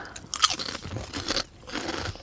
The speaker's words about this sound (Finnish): Eli täällä on linssisipsejä ja sitten tota noin ipaa. Niin mitäs tästä yhteen ollaan mieltä? Vähän rouskutetaan täällä radiossa, koska kyllähän aina pitää vähän syödä, syödäkin täällä.